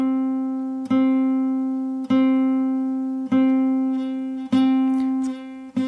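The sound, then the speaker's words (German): A single plucked guitar string note, pressed down as hard as possible so the pitch is pushed slightly out of tune, rings out five times at an even, unhurried pace, each pluck sustaining and fading before the next, clear with no voices. “Da hört man auch, dass der Ton ein bisschen aus der Stimmung gedrückt wird.”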